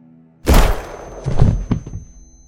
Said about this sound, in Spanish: Un silencio opresivo procedió al estruendo del disparo, llevándose consigo los últimos suspiros de un detective atrapado en la espiral de su propia tragedia.